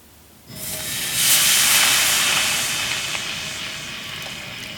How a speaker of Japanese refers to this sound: 今朝はすき焼きのいい音それではお聞きください